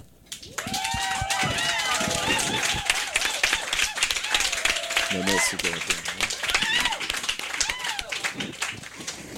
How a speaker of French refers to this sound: Et c'est, vraiment un honneur d'être aussi bien entouré. Donc, applaudissements.